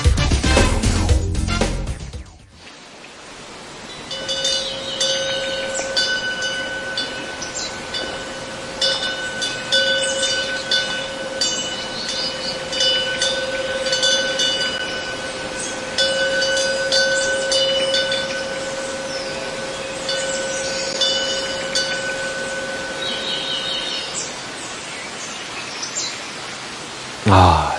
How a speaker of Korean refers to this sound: 잠깐 들었는데도 머리가 맑아집니다. 사찰의 풍경 소리 저희가 담아봤습니다.